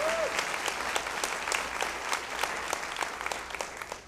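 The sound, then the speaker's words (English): A crowd claps steadily for graduating students, the dense patter of many hands sustained throughout without any voices standing out. “So, yeah, give him a round of applause again for our graduates.”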